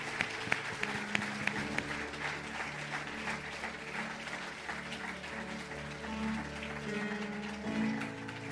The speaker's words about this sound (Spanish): Démosle un fuerte aplauso. Gratitud a nuestro buen Dios. Gracias, Señor.